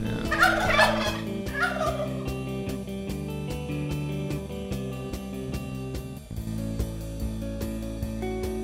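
A turkey gobble sound effect sounds loudly in a quick, warbling burst near the start, with a shorter second gobble right after, both laid over a steady, rhythmic music bed that continues alone afterward.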